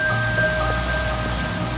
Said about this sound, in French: La pluie qui tombait ce soir-là.